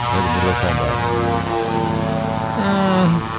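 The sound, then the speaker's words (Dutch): A loud, sustained car horn sound effect, added in editing, blares over an engine drone, its tone bending downward in pitch as it sweeps past, like a Doppler shift, then a final honk before fading. “Een beetje een, dop, een, beetje een Doppler-klakson, jongens.”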